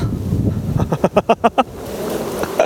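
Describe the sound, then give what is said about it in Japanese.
Wind sweeps steadily through grass and trees on the bank of the Asahikawa River in Okayama, Japan, a continuous breathy rustle, broken midway by a quick run of five rhythmic, tonal calls before the rustling carries on alone. “えー、聞こえますでしょうかこの草木のざわめきが”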